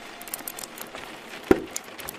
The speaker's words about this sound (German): Wir haben noch mehr als genug Holz für den Kamin. Ich lege noch ein paar Holzscheite nach und dann ziehen wir die Sache durch.